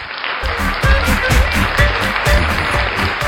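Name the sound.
applause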